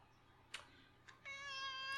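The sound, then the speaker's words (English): A couple of soft clicks, then a male cat lets out a single drawn-out meow, steady, holding to the end with no one talking. “Do you hear the way he talks to me?”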